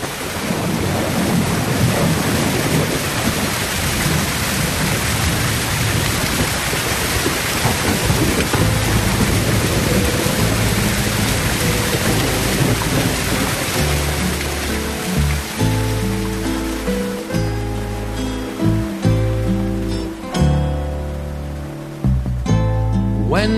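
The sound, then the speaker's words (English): Heavy, steady rain on a hillside hisses loudly with low rumbling underneath, then music with sustained tones and plucked notes gradually rises through the downpour. “So this is off his … album, um, on a hillside in the rain.”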